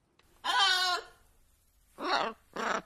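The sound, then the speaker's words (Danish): A three-year-old African grey parrot named Sorba gives three nasal, bleating calls: one drawn-out cry followed by two shorter squawks after a pause, with no talking around them. “Din flotte, grå, afrikanske treårige papegøje, Sorba.”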